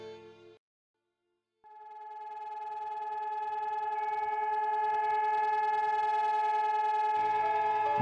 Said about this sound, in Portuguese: Na manhã de Yom HaShoah, o país para por dois minutos ao som de sirenes que nos fazem relembrar em todos os cantos do país a todos os judeus que sofreram sob o regime nazista.